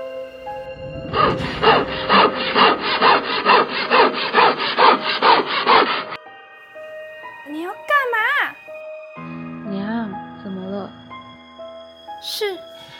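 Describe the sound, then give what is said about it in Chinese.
Steady, rasping strokes of a saw cutting through wood, about three per second, loud and rhythmic for roughly five seconds, then the sawing stops and voices speak. “他把我们家的粮锯下来啊！”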